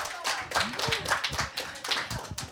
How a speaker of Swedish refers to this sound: Yes, en applåd